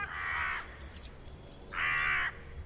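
Two harsh, drawn-out caws from a hooded crow, about a second apart, each lasting around half a second, loud with no other sounds around them.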